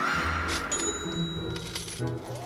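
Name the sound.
coins dropping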